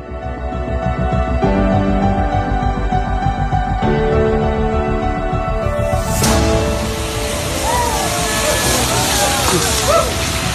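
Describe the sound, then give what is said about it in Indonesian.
A car drives through a puddle: a steady engine rumble builds, then a loud, sudden splash of spraying water bursts out midway and trails off into a long hissing wash, with faint voices murmuring. “Tetap hati-hati ketika melintasi genangan air karena dapat memicu konflik dan kecelakaan lalu”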